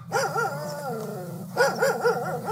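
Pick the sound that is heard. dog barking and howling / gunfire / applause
dog barking and howling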